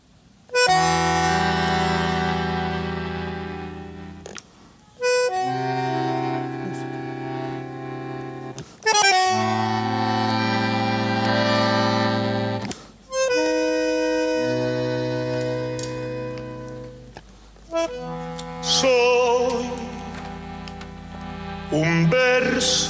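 An instrumental tango passage of rich sustained chords, likely bandoneon, played in four swelling phrases separated by brief pauses, fairly loud, with no voices.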